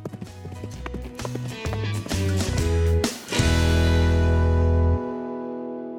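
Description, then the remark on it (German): Rhythmic clip-clop of a ridden horse's hooves beats steadily, heading to a disco on Second Street, over a tuneful musical backing that shifts in short steps, then ends on a long held chord before falling quiet. “So, da wären wir hat mich das Scheißpferd doch einfach vom Rücken geschmissen.”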